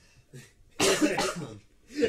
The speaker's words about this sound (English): Just one moment. no coughing on air.